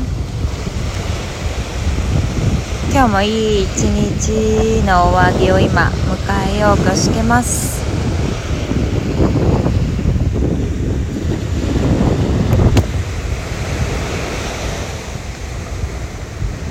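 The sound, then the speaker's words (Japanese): Ocean waves at Miyakojima wash steadily onto a shore at sunset in a continuous roar, with gusts of wind buffeting the microphone; a woman speaks briefly near the start over the surf. “宮古島の波の音”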